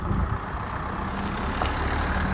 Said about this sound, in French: Ah, une voiture.